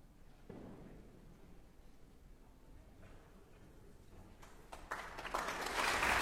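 A concert audience at the Vienna New Year's Concert breaks into applause to welcome conductor Daniel Barenboim after quiet murmuring; the clapping starts in scattered bursts and quickly swells into loud, dense, continuous applause.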